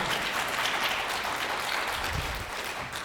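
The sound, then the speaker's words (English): Steady audience applause fills the whole stretch, a dense, continuous patter of many hands clapping at an even loudness with no talking over it. “You can applaud, yeah.”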